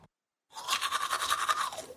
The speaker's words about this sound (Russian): Я его начал чистить зубной щеткой.